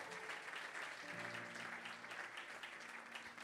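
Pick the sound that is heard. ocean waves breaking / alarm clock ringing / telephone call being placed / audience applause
audience applause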